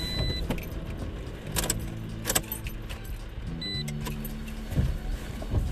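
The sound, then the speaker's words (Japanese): Steady low engine rumble and road noise from inside a moving car being driven on a cold day, its windows fogging up, with a few brief rattles and clicks and a faint high whine, no voices. “今ですね、えー、車にね乗ってるんですけれどもなんかねすごくね曇ってきちゃったんですよねやっぱり寒いからエアコンをちゃんと上手に使わないと車が曇っちゃうんだなって思って”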